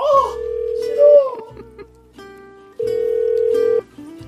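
A phone call to a girlfriend rings out unanswered after 1 a.m.: an electronic ringback plays a steady melody of sustained, stepping tones, moderately loud and continuous, with no voice picking up.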